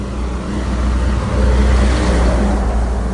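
A tractor's engine drones past at close range, a steady low rumble with a broad hiss that swells slightly midway before holding level. No one speaks.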